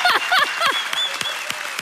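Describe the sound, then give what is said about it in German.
A live audience at a live show bursts into applause for a host's 88-year-old grandmother who is attending, with a thick patter of clapping and a few excited cheers at the start, then the claps thin out and fade over the next second. “Meine Oma ist wirklich heute Abend hier. Großer Applaus.”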